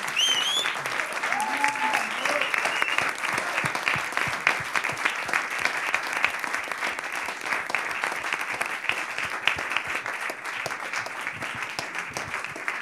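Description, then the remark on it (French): A crowd applauds steadily, many hands clapping in a dense, even patter that lasts around thirteen seconds, with a short whoop or cheer rising over it at the very beginning. “Des applaudissements en général et après, on va boire Merci beaucoup.”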